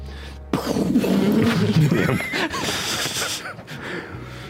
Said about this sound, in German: also ja, draußen hört ihr jetzt tatsächlich Donner.